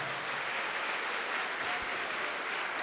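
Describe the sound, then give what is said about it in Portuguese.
An audience at a church service claps steadily in praise of the name of Jesus, a dense wash of many hands applauding at once, continuous and even throughout with no voices standing out. “Oh, glória, vamos aplaudir ao nome de Jesus.”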